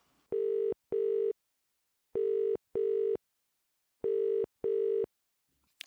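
A telephone ringing tone heard down the line: three double rings in steady rhythm, each pair of buzzing pulses separated by a short pause, clear and alone with no talking.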